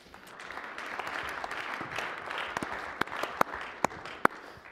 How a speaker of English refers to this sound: So. Always feels good to get applause, right?